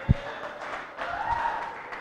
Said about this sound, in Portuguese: Amém. Palmas para ela.